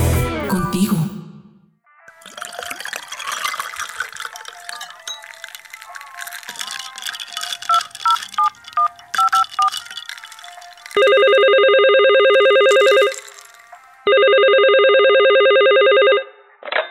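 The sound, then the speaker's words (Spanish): A phone is dialed with a quick run of keypad beeps over a busy tonal background, followed by two long, loud, evenly spaced ringing tones with a short pause between them. “Ahí vamos, por eso te llamaba.”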